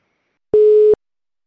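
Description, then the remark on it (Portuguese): A single short beep of a telephone ringing tone from a call to the speaker's business partner, one steady electronic pitch lasting under half a second, clear and fairly loud with no voices around it. “Vou ligar para ele.”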